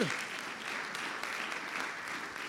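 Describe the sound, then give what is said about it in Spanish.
An audience applauds for the Lord steadily, the dense clapping sustained at an even level throughout with no one speaking over it. “Eso merece un aplauso del Señor.”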